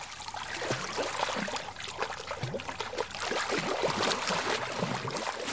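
Several men and women swimming carefully and splashing in the turquoise water of a small, very salty lake at Siwa in the Libyan Desert, a steady sloshing and lapping that carries on for the whole stretch with no voices.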